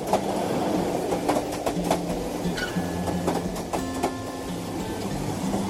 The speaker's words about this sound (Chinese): 火车咔嚓咔嚓往前开，车厢内安静得只剩下音乐。